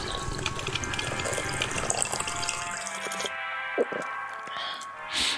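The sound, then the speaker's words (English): Freshly made coffee, now ready, gurgles and bubbles in a steady, busy wash of liquid sound for about three seconds, then drops to a softer hiss broken by a few light clinks. “It sounds like the coffee's ready.”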